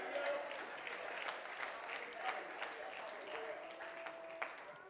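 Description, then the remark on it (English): An audience claps their hands together to praise God in a dense, steady patter of many overlapping claps, with faint voices murmuring and calling out underneath. “Oh, come on, somebody clap your hands and praise God tonight.”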